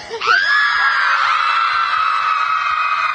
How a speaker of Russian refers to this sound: Наверное, я просто злюсь. Я очень злюсь, и я хочу кричать. Давай! Ну, да. кричи! Давай, кричи! давай!